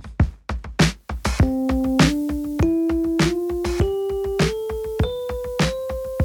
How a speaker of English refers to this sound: So here we have this major scale. I'm going to play it for you on my keyboard.